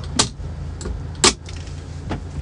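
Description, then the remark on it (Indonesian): Inside a parked car in Ampel, Surabaya, on a fairly sunny morning before driving to the office: a steady low engine idle hums throughout while a few sharp clicks and jingling taps, like keys or controls being handled, sound. No one speaks. “Ya kebetulan saya lagi di dalam mobil, lagi mau perjalanan ke kantor saya.”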